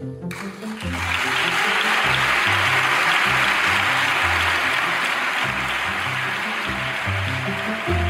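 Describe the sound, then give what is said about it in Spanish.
A crowd breaks into sustained applause after a brief quiet start, at a failed investiture session in late July; the clapping is loud and dense with a steady hiss, plus some rhythmic low thumping, likely desk pounding, running beneath it. “Con tanto aplauso, casi parece que lo que vivimos a final de julio fue un espectáculo de éxito y no un fracaso de investidura.”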